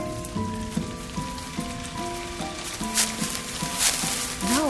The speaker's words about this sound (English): it's starting to rain.